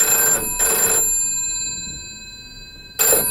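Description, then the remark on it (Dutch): A telephone rings in bursts as Delphine calls Mathilde and Filip: two quick trills close together, a pause of about two seconds, then the ringing starts again. The tone is bright and buzzy, with no one speaking. “Delphine belt met Mathilde en, en Filip en we waren erbij.”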